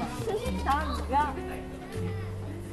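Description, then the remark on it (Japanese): Children play in a school playground opened to them on a holiday, their voices carrying across the open outdoor space, a steady murmur of play with a couple of high, sing-song calls rising above it, moderately loud. “今日はだから雑音が入るけれども、うん、まあいつものあのさガンガンガンっていう雑音よりかはさ子供のなんかねなんかこう平和な感じになる”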